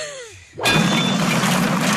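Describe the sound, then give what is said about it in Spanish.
A brick wall being smashed suddenly gives way with a loud crash, followed by a sustained, rumbling roar of falling bricks and rubble that fills the rest of the moment, heavy. “¡Se cayó el muro!”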